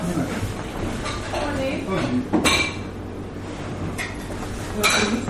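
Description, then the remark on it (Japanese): Plates and cutlery clink a few times in quick, sharp taps as food is shared out onto plates, with a brighter clatter midway and near the end, over steady background murmur and people talking. “分けて一緒に、うん、はいすいませんいただきます、うん、一緒に申し訳ないです皿こ”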